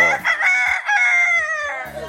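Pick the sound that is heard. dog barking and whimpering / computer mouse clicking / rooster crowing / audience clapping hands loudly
rooster crowing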